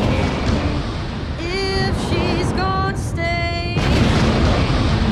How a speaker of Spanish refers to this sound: Estoy listo con la explosión, señor.